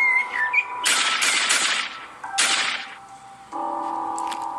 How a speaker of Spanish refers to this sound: En ese momento, cuando el inocente Guatusa se acercaba, sin saber el peligro que le esperaba, se escucharon unos disparos a lo lejos.